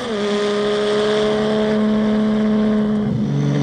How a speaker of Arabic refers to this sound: يفتتح الفيلم بمشهد لرجل يدخن السجائر وهو يقود سيارة ميورا بسرعة فائقة بين جبال الألب يصطدم السائق ببلدوزر وتشتعل السيارة